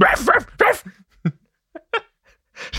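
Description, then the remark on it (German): A person imitates a barking dog with a few harsh, voiced barks, followed by several short, quieter yips and whimpers spaced out, ending in another bark. “ich glaube, ich werde zum Hund. Fuck, ich, ver ich, ich verwandle mich zum Hund.”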